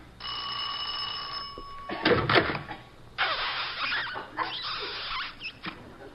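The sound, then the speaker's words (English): A doorbell rings with a steady electric buzz for a couple of seconds, then a door bangs and rattles open with scraping, knocking noises, with no voices. The bell is rung at a porch door at night, with the porch light off. “I'll ring the bell.”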